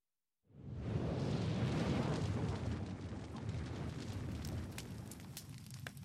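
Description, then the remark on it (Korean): A sudden whoosh of flame flares up under a pot of soup and settles into a steady, loud roaring rush with faint crackles on top, sustained for several seconds. “화르! 불꽃이 일며 수프가 잔잔한 파장과 함께 더욱 뜨거워졌다.”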